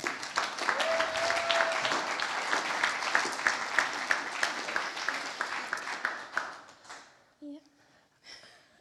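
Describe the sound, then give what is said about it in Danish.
A church audience applauds steadily for about seven seconds as a woman is called up to the front, a dense patter of many hands, with a brief whistle or cheer early on, then the clapping fades and a voice begins speaking. “Giv hende lige en hånd.”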